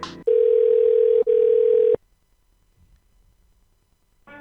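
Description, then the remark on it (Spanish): A telephone ringing tone on a line as fans call a number that reaches a voicemail message from Murray Bauman; one loud, steady electronic burst of about a second and a half with a brief break in the middle, followed by near silence. “¿Sabes qué ha ocurrido cuando los fans han llamado a ese número telefónico?”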